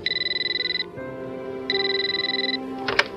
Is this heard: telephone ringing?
yes